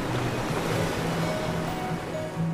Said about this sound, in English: Your ears hear wondrous sounds, like the roar of oceans blue.